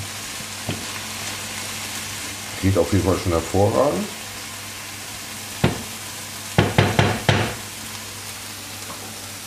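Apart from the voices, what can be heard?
food sizzling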